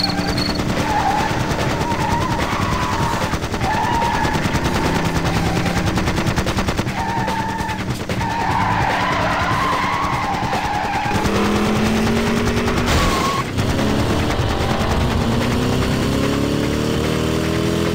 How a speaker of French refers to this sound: La nuit de ce 3 juillet est calme, surtout cette route désertique près de Lubbock dans le Texas. Cette quiétude nocturne est soudainement brisée par le vrombissement de moteurs survitaminés, des pneus qui crissent et des échanges de tirs.